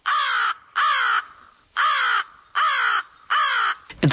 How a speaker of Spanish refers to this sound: El cuervo, lo que nosotros llamamos cuervo, es más pequeño. Es más pequeñito y tiene un sonido diferente, que es este.